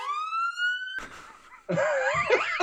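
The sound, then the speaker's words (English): A loud, steady electronic censor bleep tone covering a swear word holds for about a second, then cuts into a noisy burst followed by a warbling, siren-like wavering sound. “and this is going to need a serious beep on it.”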